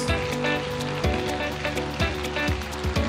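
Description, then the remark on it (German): Sustained audience applause for small group members and leaders who are asked to stand, a dense, steady wash of many hands clapping, over low sustained musical tones with soft thumps recurring roughly every second. “Du bist in einer Small Group oder bist ein Small Group Leiter, bitte aufstehen, das ist dein Applaus.”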